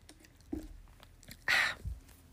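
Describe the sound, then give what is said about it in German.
Someone takes a sip of a drink: a soft low knock, then a brief loud, airy slurp or gulp, followed by a dull thud like a cup being set down. No one speaks. “Aber erst trinke ich einen Schluck.”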